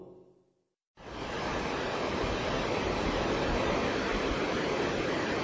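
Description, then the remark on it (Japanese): Ocean waves on a sandy beach at Shonan, Japan: after a faint moment of fading voice, a loud, steady wash of surf cuts in abruptly and rushes on continuously, enveloping, with no talking over it. “えー、この音は、そうです。波の音ですね。”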